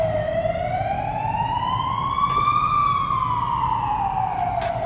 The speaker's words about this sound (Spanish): A ver si bien pasa la ambulancia.